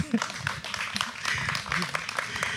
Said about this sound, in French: Alors l'histoire de cette traduction, elle est, formidable. Ça s'applaudit. Hein.